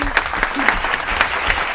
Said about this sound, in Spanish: Vamos a darle un fuerte aplauso a la coordinadora. Me pongo de pie, eh.